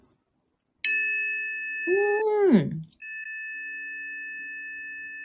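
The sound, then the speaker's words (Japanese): A healing tuning fork, one of a set of nine tuned to the chakras, is struck and rings with a clean, sustained metallic tone and steady overtones, briefly interrupted by a short murmured voice before the pure ringing continues. “あ、これはね、音差です。”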